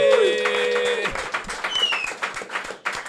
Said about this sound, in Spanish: Así que, primero que nada, gracias a la audiencia que nos vino a acompañar. Un aplauso, ¿verdad?